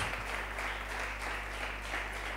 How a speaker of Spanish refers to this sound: Un abrazo para un aplauso para todos los que están escuchando, los que están trabajando, los que están en sus casas por algún problema de enfermedad, lo que sea.